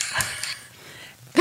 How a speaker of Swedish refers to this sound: Det ni hörde där, det var när Katarina med en sån här spatel står och liksom, vad heter det, vädrar.